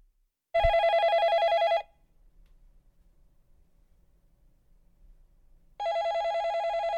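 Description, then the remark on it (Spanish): A telephone rings twice, each burst a loud, buzzy electronic trill lasting over a second, separated by about four seconds of near silence with a faint low hum. “el teléfono salvador.”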